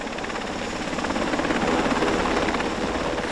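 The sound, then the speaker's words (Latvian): A helicopter lands on a helipad at a hospital, its rotor thumping in a fast steady pulse over a dense, broad engine rush that holds loud throughout, with no voices. “Kad helikopters nolaidies laukumā pie slimnīcas, medicīniskais personāls gatavs saņemt cietušos un izvērtēt, kādu palīdzību sniegt.”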